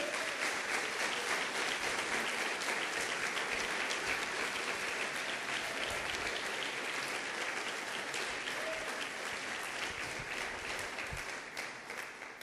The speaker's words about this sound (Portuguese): Aplauda Jesus se você crê.